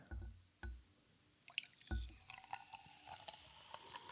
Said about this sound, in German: sei mal leise jetzt, während Simon das zweite Sektglas einkippt